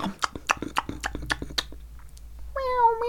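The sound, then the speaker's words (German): A series of sharp clicks and taps gives way to a single drawn-out meow from a human voice imitating a cat as a pantomime hint in a guessing game, its pitch wavering and sliding downward at the end. “Na, weil ich dachte jetzt, ich dachte jetzt, weil du Miau Miau gemacht hast,”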